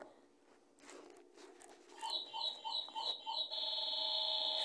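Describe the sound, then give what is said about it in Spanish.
A small clock alarm goes off, marking the time to take a pause, starting as a run of five quick, high electronic chirps and then settling into a steady, continuous ringing tone, fairly loud, with no one talking. “Lo que pasa es que tenemos un relojito.”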